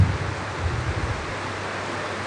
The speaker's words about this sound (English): Now we are competing with the rain.